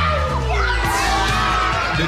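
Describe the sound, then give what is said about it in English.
A lively crowd of children squeal and scream with excitement as they open Operation Christmas Child shoebox gifts, high voices overlapping continuously and loudly, with a few sharper shrieks rising above the din. “There's squeals and screams, and they are so excited to see what's inside their box.”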